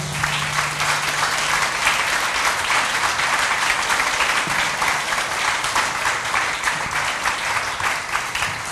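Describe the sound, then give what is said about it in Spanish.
Loud, sustained applause from a crowd given to the Lord during worship, a dense steady clatter of many hands clapping without pause for the whole stretch, with a faint low hum underneath at the start. “Denle un aplauso al Señor fuerte.”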